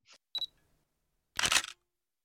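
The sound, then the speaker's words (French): A small camera shutter clicks: two quick, light clicks with a faint electronic chirp, then a louder, longer mechanical snap about a second later. Clean, with no talking. “Donc j'ai euh, d'une traite euh, ajouter plein de sons de petits euh, appareils photo et de petites caméras parce qu'un ami avait plein d'appareils à me faire enregistrer.”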